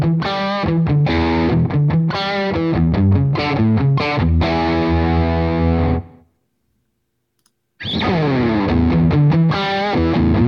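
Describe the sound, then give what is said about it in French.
Distorted electric guitar plays loud, choppy rhythmic chords for about six seconds, stops into near-silence, then returns with another burst of gritty, sustained chords. No one speaks. “Avec de la disto.”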